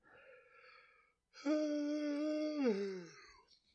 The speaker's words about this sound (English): I don't know why I'm yawning either, man. What is up with my body? It's like I had a hard day at work or something.